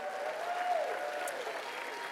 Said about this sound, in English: So, uh, Concord, say hello to the gallery right now. Cheer, let's cheer them on